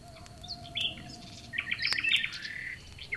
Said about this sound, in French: Chaque son est plus présent le vent au loin, le bruissement des feuilles, le ululement du hibou. Le feu crépite